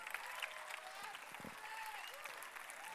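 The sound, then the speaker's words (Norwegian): An audience applauding, a dense, steady patter of many hands clapping at an even loudness for the full three seconds, with faint crowd voices mixed in. “Gi en applaus.”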